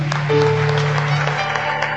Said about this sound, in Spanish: Un aplauso al Señor.